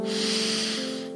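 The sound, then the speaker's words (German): A single long, deep breath drawn in through the nose during a guided breathing exercise, airy, lasting over a second, with a soft steady humming tone underneath. “Wir atmen ein und wir atmen aus.”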